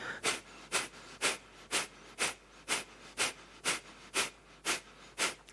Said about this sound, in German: Eine einfache Weise ist mit Atemübungen, zum Beispiel Kapalabhati. Ja, wenn du willst, kannst du es ausprobieren. Einfach schnell atmen und gib mal die Hände nach oben.